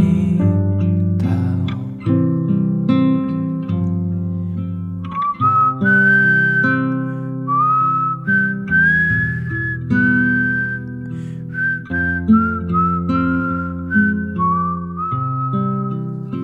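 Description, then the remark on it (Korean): A singer whistles live a clear, wavering melody over a steady band accompaniment in a live song performance, the tune gliding between held high notes for most of the stretch, with no talking. “이 지금 들리는 휘파람 있죠? 이 휘파람 소리도 라이브로 해주셨다는, 네.”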